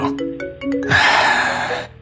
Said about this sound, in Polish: Gra automatycznie zapisała postęp. Nagle zadzwonił telefon Pola.